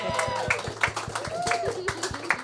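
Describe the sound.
A short burst of applause: quick, evenly spaced claps at a steady rhythm, fairly loud, mixed with voices calling out and cheering over the clapping.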